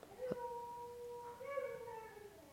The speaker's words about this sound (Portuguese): Oh meu Deus, vocês conseguem ouvir isto? Olhem, não tenho como controlar o cão alheio, ok?